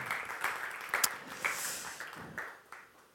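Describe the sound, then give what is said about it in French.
A crowd applauds the gardeners who did the gardening there the day before, with dense, steady clapping that holds for a few seconds, with a few sharper individual claps standing out, then gradually thins and fades toward the end. “Merci les jardiniers. Applaudissons-les.”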